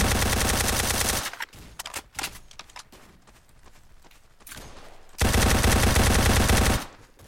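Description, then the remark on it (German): Two long bursts of loud, rapid machine gun fire from a video game, separated by a stretch of sparse, quieter clicks and scattered shots. “Also die Mut Bro, 55 Millionen Seiten Schüsse, Digga.”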